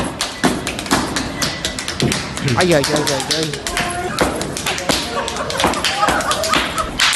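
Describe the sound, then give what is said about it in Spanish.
Sharp, rapid slaps ring out in a steady rhythm as people slap their own and each other's faces instead of clapping, alongside heavy heel stamps (heel-stamping dance steps, not kicks) on a floor, loud, while voices shout short exclamations over the percussion. “No las tocan cada uno las suyas. Se dan bofetadas. Así ah, suenan. ¿Esto, que vamos a oír son bofetadas en la cara?”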